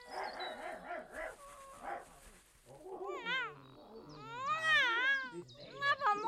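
A dog named Grant barks and whines in short bursts while chasing a cat named Silvana, which lets out several loud, wavering yowls and meows, the two animals sounding agitated together with no talking.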